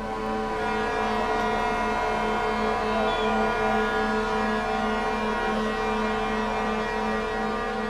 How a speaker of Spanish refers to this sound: Cuando esta tercera sirena sonó, unas 300 personas ya se encontraban agolpadas sobre la avenida El Poblado, a las afueras del club campestre, hasta donde las vallas de seguridad lo permitían a la espera de que el Mónaco desapareciera ante sus ojos.